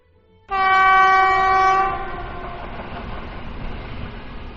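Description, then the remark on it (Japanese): A train sounds a loud, steady horn for about a second and a half as it departs, then a low, continuous rumble of the train moving carries on beneath it. No one speaks. “春に向かう列車が出発しました。”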